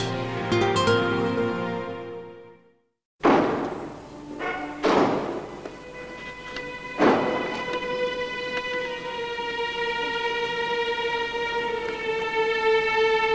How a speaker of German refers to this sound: Die Türen knallten in der ersten Minute des Tristan-Vorspiels in Jerusalem. Es war die letzte Zugabe des Konzerts der Staatskapelle Berlin mit ihrem Chefdirigenten Daniel Barenboim.